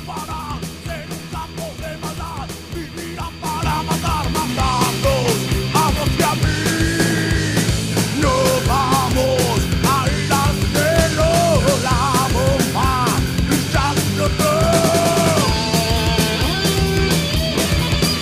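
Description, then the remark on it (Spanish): A rock band that played at a festival performs a song, loud and continuous, with steady pounding drums, dense guitars and a wavering lead vocal line; the music gets fuller a few seconds in and keeps going to the end. “estamos escuchando justamente una banda que participó en, en Rock in Rio ….”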